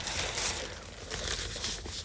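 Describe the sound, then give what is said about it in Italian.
Crisp rustling of newspaper pages being picked up and shuffled as a speaker takes up news articles again, with steady crinkling and a few sharper crackles over about two seconds, no voices. “Oh, qui scusate che riprendo gli articoli.”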